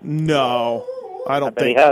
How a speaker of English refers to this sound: Sorry about my dog barking in the background.